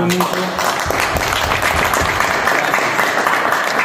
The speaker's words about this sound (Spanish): Quiero pedir un aplauso para él